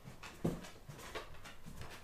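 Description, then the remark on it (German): Dogs shuffling and moving about, with a short whimper-like yelp and soft scuffling noises over a quiet background, fairly faint overall. “Jetzt muss ich diese Podcast-Folge hier unterbrechen, weil die Hunde hier rumdameln.”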